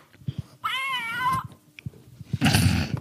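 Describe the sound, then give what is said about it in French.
A single drawn-out cat meow with a wavering, harmonic tone, followed by a burst of harsh, crackly noise; the sound is thin and lo-fi, like a poor-quality recording, with no talking. “C'est donc, euh, oui, c'est un bruit de qui miaule en très basse résolution.”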